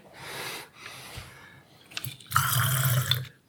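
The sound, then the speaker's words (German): Water spurts out of a bullet hole in a few hissing bursts, then a louder, sustained gush sprays for about a second before cutting off, with no talking. “Ja, jetzt spritzt er mir um.”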